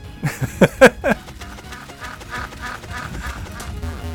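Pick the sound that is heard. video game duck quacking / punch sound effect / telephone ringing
video game duck quacking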